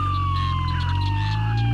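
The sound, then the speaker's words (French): A police car siren holds a single wailing tone that slowly drops in pitch, loud, over a steady low engine rumble with no voices. “Déjà, il y a leur putain de sirène, là”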